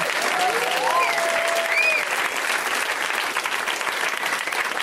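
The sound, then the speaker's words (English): Sustained, dense applause from a live audience at a steady loud level, with a few whoops and cheers rising above the clapping, at the end of a show at the UCB Theater in Los Angeles. “Let's hear it for everybody you saw.”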